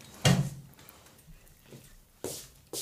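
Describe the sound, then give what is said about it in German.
A front door is opened with a sharp thud to answer the doorbell, followed by a stretch of quiet rustling and footsteps before it bangs shut again near the end, with no talking. “Oh, da klingelt es an meiner Tür. Tut mir Unbedingt. leid, ich muss, ich muss kurz rangehen, ja?”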